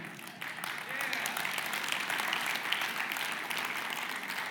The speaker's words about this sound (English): I heard a little clap over there. I think a senior was.